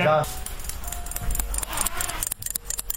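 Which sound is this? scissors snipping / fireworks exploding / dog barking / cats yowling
scissors snipping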